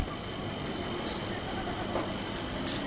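A steady, continuous rumble of a train in motion, broad and even in loudness throughout with faint higher rattling on top, heard alone without any voices.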